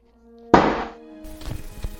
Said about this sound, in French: Oh putain, ça me donne l'occasion de sortir mon livre.